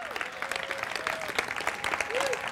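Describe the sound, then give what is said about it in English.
Steady, enthusiastic applause from a large audience at Hope City Church for people watching around the world and in Melbourne, dense clapping filling the space for a few seconds, with faint cheers and voices mixed in. “Why don't we give them all a great hand? Let them hear that we love them.”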